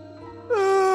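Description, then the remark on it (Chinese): A voice imitates Zhang Pangzi's loud, drawn-out yawn. It rises abruptly into a strong, sustained vowel with a slight downward slide in pitch and keeps going to the end, after a quieter start. “张胖子这个哈欠打的那叫一个长。”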